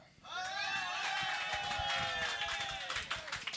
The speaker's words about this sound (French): Par applaudissement à ceux qui sont ici!